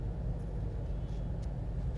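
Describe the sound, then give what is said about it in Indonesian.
A purple bus with some pink rumbles along with a steady, deep engine drone that stays constant rather than swelling past, with faint higher hiss and no voices. “oke kita lihat ada bus yang sedang berjalan”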